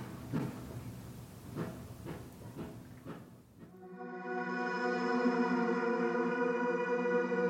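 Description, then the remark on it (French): Heavy industrial machinery at a cement plant, the noise of a concrete mixer: a run of rhythmic clanking knocks, then a loud, steady, tonal mechanical drone with a rich whining hum that continues to the end. No one speaks. “la cimenterie et la concasserie génèrent énormément de poussière”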